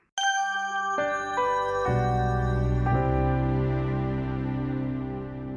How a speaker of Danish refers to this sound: kommer frem til et logo, som har en dansk tone i melodien, spillet af et klaver, der signalerer tradition og pålidelighed, men samtidig pakket ind i en mere nutidig lyd, der signalerer fornyelse. Det lyder sådan her.